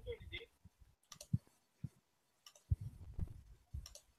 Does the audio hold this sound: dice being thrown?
yes